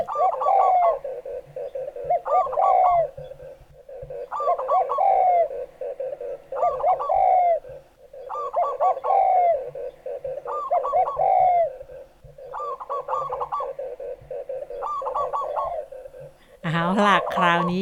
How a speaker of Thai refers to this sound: แต่ถ้าทั้งสามนกเขามาอยู่รวมๆกัน แล้วก็เสียงก็จะเป็นแบบนี้ค่ะ